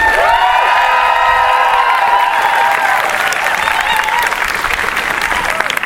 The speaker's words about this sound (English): Can we get one last big round of applause for all our speakers?